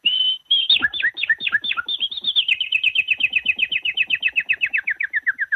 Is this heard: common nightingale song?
yes